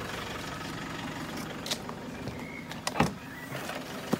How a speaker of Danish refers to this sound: Hun åbner simpelthen bagagerummet på en bil, der har fulgt efter hende, og der ligger detektiven fra forsikringsselskabet.